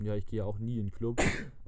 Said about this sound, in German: aber Gesundheit. Danke.